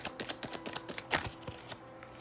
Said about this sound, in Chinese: 那因为我都是一边洗牌一边抽牌哦，所以请大家多多包涵，可能时间会久一点点。